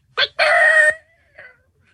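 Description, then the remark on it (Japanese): A loud rooster crow sound effect rings out: a short opening note followed by a long, drawn-out harmonic call that cuts off abruptly, then a faint brief squawk trailing after. “今閉めたんですね、鳥を。”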